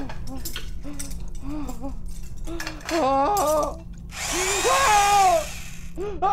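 A bone saw whirs, its high motorized whine rising and falling over a burst of harsh grinding noise, preceded by short, squealing vocal sounds.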